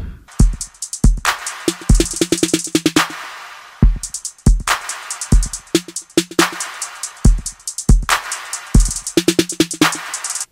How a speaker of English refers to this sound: right, next I've added the hi-hat, um, and this is the Ableton hi-hat. Uh, just go under hi-hat, hi-hat 808 closed. All right, I've added the 808 clap, and I put a concert hall reverb on that. So here's what it sounds like with the full drum kit now.